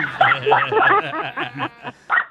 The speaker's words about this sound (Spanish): Oye, hasta el perro está ladrando.